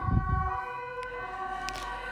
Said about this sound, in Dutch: Nou, komen sirenes eh, voorbij.